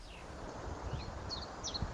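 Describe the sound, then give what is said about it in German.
Faint, high bird chirps and short whistled calls come and go over steady outdoor background noise, with a few scattered calls spread across a couple of seconds. “Die Vögel sind hier etwas laut, aber ist ja auch schön.”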